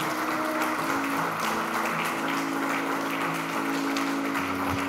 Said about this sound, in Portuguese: Vamos aplaudir carinhosamente o nosso Deus, amém?